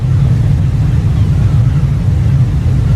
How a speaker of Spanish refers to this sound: Estamos en la popa de un enorme barco de cruceros, dejando atrás el puerto y embarcándonos en una travesía.